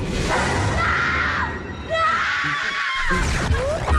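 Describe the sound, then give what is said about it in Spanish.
Several anguished, wailing screams, said to come from a mirror, rise and fall over a dense, noisy background, sustained and fairly loud throughout, with eerie tonal swoops layered in like a horror soundtrack, in the radio drama Los hijos de la llorona. El origen. “Esos gritos no vienen de la calle. Vienen del espejo.”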